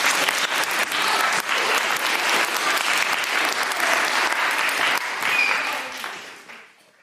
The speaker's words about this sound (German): Und für die auch noch einen ganz herzlichen Applaus, dass sie euch so toll unterstützt haben.